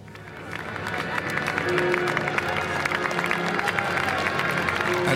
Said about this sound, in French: ovation pour les nouveaux prêtres fraîchement ordonnés. Et ce qui me surprend, c'est d'entendre ces merci qui fusent ça et là. En fait, les fidèles remercient ces jeunes hommes de leur consacrer leur vie.